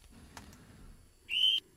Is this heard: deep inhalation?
no